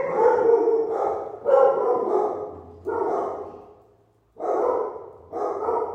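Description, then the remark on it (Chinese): A dog that is very afraid of firecrackers barks loudly in a run of about five drawn-out, harsh barks, each roughly a second long, with a brief lull before the final two. No one speaks. “Sorry，老克的狗非常非常怕鞭炮声。”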